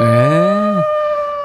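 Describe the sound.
The radio show's producer mimics a wolf howl: one loud, drawn-out cry that swells and bends downward in under a second, followed by a lingering steady tone.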